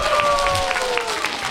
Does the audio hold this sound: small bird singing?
no